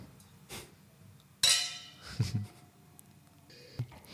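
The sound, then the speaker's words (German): Wine glasses of Spätburgunder red wine touch in a toast, giving one bright, ringing clink that lingers briefly, followed by a few softer knocks and small handling noises. “Also zum Wohl. Zum Wohl.”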